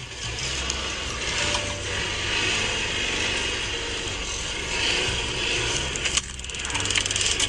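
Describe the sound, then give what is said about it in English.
A taser discharging during a police arrest: a harsh, rapid electrical crackle of fast clicks, loud and steady for about seven seconds, with a brief sharp burst near the end and no voices. “Guy got tased and he just kept going.”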